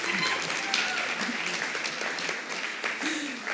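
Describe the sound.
Steady audience applause fills the whole stretch, a dense wash of many hands clapping at a constant loudness, with a few faint voices mixed into the noise.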